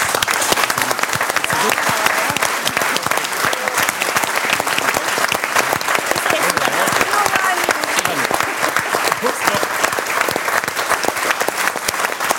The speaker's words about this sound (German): Und wenn du noch nicht jetzt, aber gleich schon einen Applaus vom Publikum bekommst, kann ich das für einen Moment noch weiter entspannen.